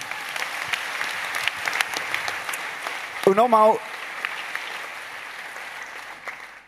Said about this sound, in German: Ja, es hat Applaus verdient.